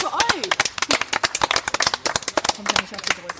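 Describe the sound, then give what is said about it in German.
A crowd applauds with dense, irregular claps filling the whole stretch, loud and steady, with some cheering voices mixed underneath. “Ein Applaus”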